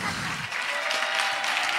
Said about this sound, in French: Donc on peut applaudir Yacine